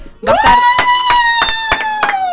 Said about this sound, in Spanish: Bueno, estos aplausos y gritos son para vos.